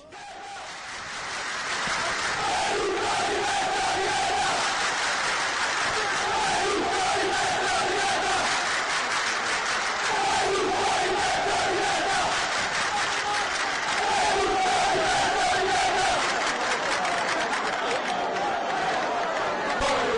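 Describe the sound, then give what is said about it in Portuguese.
A large crowd of football supporters chants protest songs against Berlusconi in unison, including "Berlusconi Peço de Merda" and "Bella Ciao". It is a loud, continuous, rhythmic roar of many voices for the whole stretch, recorded in 2009. “Berlusconi Peço de Merda e a belíssima Bela Tchau. Áudios colhidos em 2009.”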